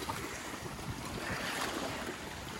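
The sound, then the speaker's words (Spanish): Waves wash steadily against a rocky Mediterranean beach with little sand, a continuous broad rushing roar mixed with gusting wind buffeting the microphone, fairly loud, with no voices. “Ya ven que en las playas de aquí del Mediterráneo no hay mucha arena.”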